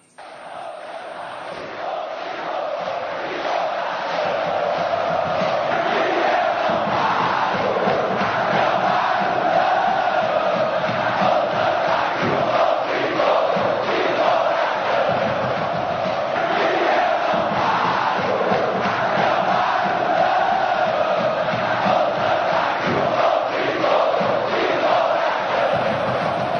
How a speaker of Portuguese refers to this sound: Vamos ouvir Solto e de Coração, uh, a última vez que a torcida do Santa Cruz vai cantar neste programa. Vamos lá.